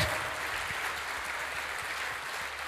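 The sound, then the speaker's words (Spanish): An audience applauds steadily in praise of God, a dense, even wash of many hands clapping that holds at a constant level for a few seconds with no voices standing out. “Fuerte ese aplauso al que vive.”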